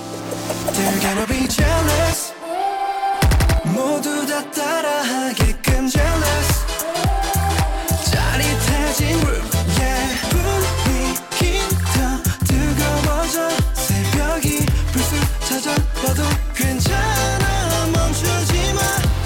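A requested K-pop song plays loudly and continuously, with a steady beat, dense layered instrumentation and sung vocal lines, apart from a brief drop in the low end near the start.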